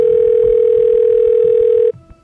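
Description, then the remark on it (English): A loud, steady telephone line tone after dialing the fire department's number, which is not in service, holds one mid pitch for nearly two seconds, then cuts off abruptly, leaving faint low rumble. “The line keeps beeping.”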